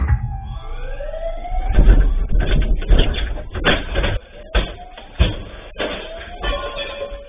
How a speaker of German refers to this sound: So hört sich das an, wenn die Täter zuschlagen, um die es dieses Mal gehen soll. Die Aufnahmen einer Überwachungskamera in einem Juweliergeschäft. Da werden in kürzester Zeit Vitrinen zerschlagen